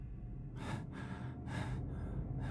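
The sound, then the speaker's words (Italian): Heavy panting from a person out of breath after running 10 to 15 metres alone in the cold and dark: four quick, breathy gasps in and out in an uneven rhythm, over a low background rumble, with no talking. “Non riesco quasi a respirare, o ho il fiatone.”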